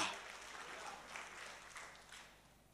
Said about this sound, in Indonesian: Tepuk tangan bagi dia.